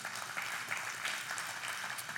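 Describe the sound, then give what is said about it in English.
A crowd applauds with a steady, dense wash of many hands clapping at once, holding an even, fairly soft level from start to finish with no voices on top. “Yeah, you can clap.”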